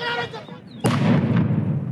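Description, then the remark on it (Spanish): A firecracker thrown by protesters at the main entrance of the UNAM rectory building goes off with a sudden sharp bang partway through, followed by a loud, sustained rumble of crowd noise and commotion. “A la entrada principal le prendieron fuego, lanzaron petardos y bombas Molotov.”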